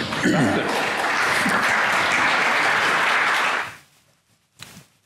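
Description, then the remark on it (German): A crowd claps steadily in a dense, loud wash of applause for nearly four seconds, then it dies away quickly, followed by a brief faint patter. “Thomas Heilenwang sagt nicht, was wahr ist, sondern wofür er politischen Applaus bekommt.”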